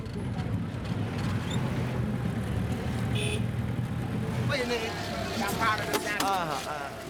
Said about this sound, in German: Alle paar Minuten hält der Bus, um andere Fahrgäste aussteigen zu lassen.